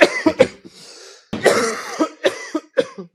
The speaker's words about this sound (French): Moi si j'ai un conseil à donner, ce serait plus euh, attends excuse-moi je tousse.